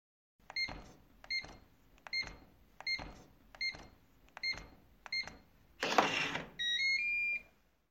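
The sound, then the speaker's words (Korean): Seven evenly spaced electronic beeps from a door keypad as a mother enters the password, then a brief whirring clunk of the lock and a short rising chime as the door of the Moon Room unlocks. “엄마가 비밀번호를 눌렀다.”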